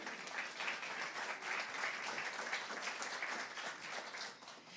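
An audience applauding the word of God together, a steady wash of many hands clapping at an even, fairly loud level for several seconds before easing off slightly at the end.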